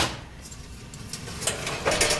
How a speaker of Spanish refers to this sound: Yo las meto en el horno, que tengo más fuerza. Abre tú la puerta. Lleva cuidado, eh, que pesa mucho.